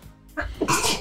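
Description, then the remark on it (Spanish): A single sharp sneeze: a quick breathy intake followed by a loud, hissing burst, with no talking around it. “Salud. Salud.”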